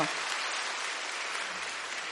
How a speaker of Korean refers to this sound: 박수로 이제 한번 격려를 해주시고요.